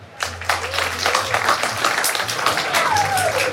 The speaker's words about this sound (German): Also, wenn Sie auf Musik nicht verzichten können und deswegen eine Woche auf den Strich gehen würden, dann klatschen Sie jetzt bitte.